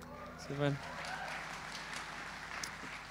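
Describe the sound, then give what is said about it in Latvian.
An audience applauds steadily for about three seconds, a dense crackle of many clapping hands, with a short voiced call or cheer rising above it near the start. “Arī aplausām.”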